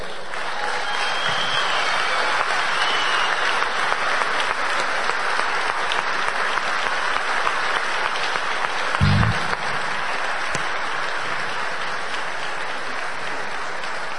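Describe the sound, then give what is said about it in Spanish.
An audience claps steadily for the whole stretch, applauding platinum members called to the front to represent businesses, a dense, even wash of applause that holds at a constant loudness with no pauses. “Les aplaudimos a ellos.”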